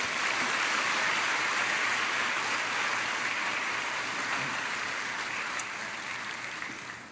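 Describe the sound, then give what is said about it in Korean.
An audience at a Father School ministry gathering applauds steadily to welcome a speaker, a dense wash of many hands clapping at once, holding strong throughout before easing off slightly near the end, with no voices over it. “큰 박수로 우리 함께 환영하겠습니다.”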